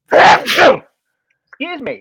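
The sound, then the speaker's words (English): A single loud sneeze bursts out in two quick explosive parts, followed after a short pause by a person speaking briefly. “Bless you. Whew, that was a loud one.”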